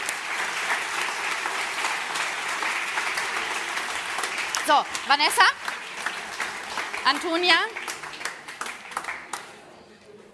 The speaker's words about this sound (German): Alle anderen bitte einen großen Applaus für die, die zu uns hier hochkommen.